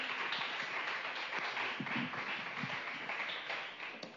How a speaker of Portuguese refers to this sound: Vamos aplaudir o Senhor Jesus bem forte? Bem forte, bem forte. Aplaude isso.